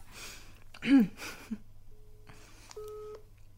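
A few breathy vocal sounds and gasps give way to short, steady telephone dialing tones as someone places a phone call, electronic beeps moderately loud near the end.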